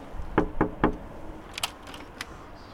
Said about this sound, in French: Je me suis permis de frapper à votre porte.